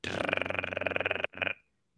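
A roadrunner's harsh, buzzing call rattles loudly for about a second like an electric taser, breaks briefly, then gives one shorter buzzy burst before falling silent.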